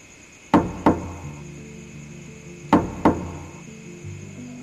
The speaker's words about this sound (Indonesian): Setelah suasana kembali tenang, Aris memberanikan diri mengetuk pintu pelan-pelan.